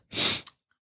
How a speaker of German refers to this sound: Gesundheit. Ja, es tut mir leid, ich habe leider Allergie.